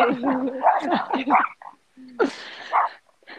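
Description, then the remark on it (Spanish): A dog makes a run of whining, grumbling vocalizations with a few sharp barks, pauses briefly, then lets out another whimpering burst. “¿Se está puteando tu perro o qué”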